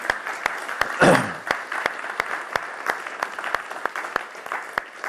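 An audience applauds steadily, a dense patter of many hands clapping with a brief louder swell near the start, sustained at an even level throughout.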